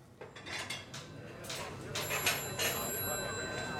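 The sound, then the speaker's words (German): Telephones ring continuously at a Domino's in East Lansing, Michigan, in January 1971, their bright electronic trills overlapping amid clattering dishes and background chatter, giving a hectic, crowded atmosphere. “Und bei Domino's in East Lansing, Michigan, klingeln die Telefone ununterbrochen.”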